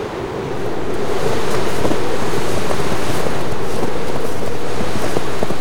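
Swirling snowstorm wind roars steadily, swelling over the first second into a loud, constant rushing hiss with a low whooshing undertone, and no voices.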